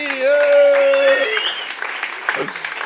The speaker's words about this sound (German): Applaus